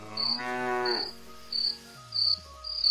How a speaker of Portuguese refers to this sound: É um grilo. Nós, nós né? temos até um grilo